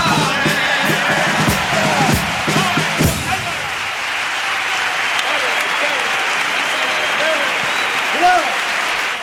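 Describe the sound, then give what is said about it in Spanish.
A crowd rises to its feet and breaks into loud, sustained applause for a second pasodoble at a carnival, a dense wash of clapping with shouts and cheers mixed in at first, continuing steadily for the whole clip. “Bueno, pues lógicamente la gente se pone en pie para aplaudir este segundo paso doble porque el turismo que viene a los carnavales sí vale, ¿no?”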